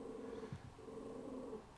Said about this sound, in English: Uh, currently, mm, our dogs are growling at each other, which is always so precious. Continue, boys, continue.